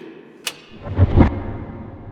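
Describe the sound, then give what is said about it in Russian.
A sharp, brief gunshot crack rings out, followed moments later by a louder, heavy booming blast that rumbles and fades. No one speaks. “Но что за самодеятельность со стрельбой?”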